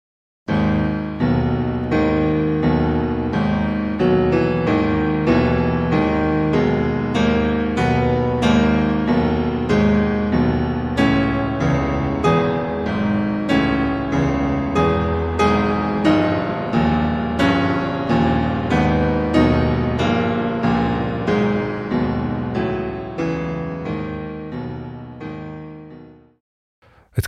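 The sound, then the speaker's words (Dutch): Slow, heavy classical music played loud on piano, depicting a Polish cart with giant wheels pulled by oxen, with a lumbering, plodding rhythm of dense low chords, steady throughout before cutting off at the end; no one speaks. “klinkt wel alsof die kar nauwelijks door de zompige modder vooruit kan komen.”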